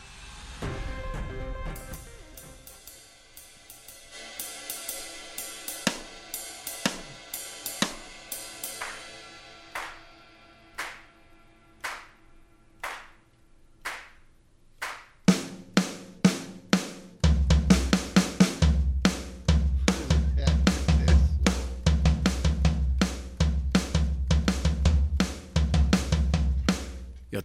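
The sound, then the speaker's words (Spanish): A drum kit being played, starting with ringing cymbal wash and scattered sharp hits, then breaking into a fast, loud, steady beat with heavy kick drum and crashing cymbals. “Este, voy a irme al departamento de percusiones, entonces yo uso Muy adelante, venga.”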